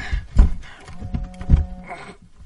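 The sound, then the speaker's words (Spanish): A Zippo lighter is flicked open and struck in the dark: a few sharp metallic clicks and a scrape, fairly loud, with a faint hum lingering in between and no talking. “Enciende el cipo.”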